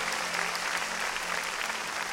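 crowd, audience applause

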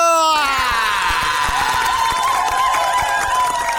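crowd, applause and cheering

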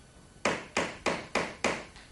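impact, knocking on a door

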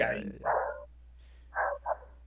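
animal, dogs barking and fighting

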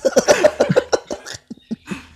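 human body sound, coughing fit

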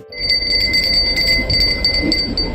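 signal or alarm, small bell ringing

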